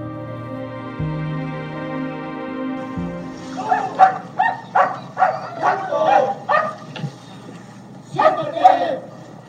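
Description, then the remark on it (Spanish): A sustained droning tone plays for a few seconds, then a chorus of many dogs, an honor guard of 84 dog-and-handler teams bidding farewell to the dead canine Proteo, breaks out barking together in loud, overlapping bursts that come in rapid succession, briefly pause, and resume. “los compañeros canes de Proteo lo despiden ladrando”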